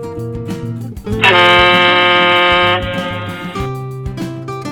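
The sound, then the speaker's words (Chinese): The loud horn of the ship Seven Seas Overlord, entering the largest dock at Crocodile Island, blasts one long, steady, brassy note for about two and a half seconds, rising over a bed of background music that continues after it fades. “响亮的汽笛声再度响起。”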